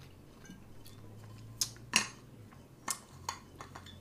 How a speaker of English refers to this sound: Oh, excuse me, y'all. Let me drink me some tea.